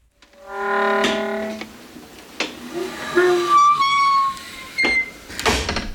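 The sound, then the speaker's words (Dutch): A door closer sings with a loud, sustained harmonic whine, then creaks and squeals in shifting tones as the door swings, with a few knocks and a closing thud at the end. “Hier horen we eh, de zingende deurdranger uit mijn eh, geluidenarchief.”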